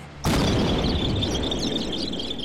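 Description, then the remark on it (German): A confetti cannon fired by Augi goes off with one abrupt, loud bang, filling the air with a cloud of colourful paper scraps, then a dense rushing, crackling hiss carries on steadily with a thin high whine running through it. No voices. “Augi hatte die Konfettikanone abgefeuert.”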